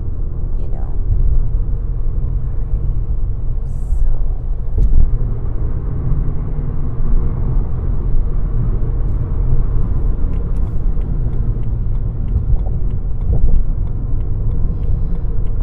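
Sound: car driving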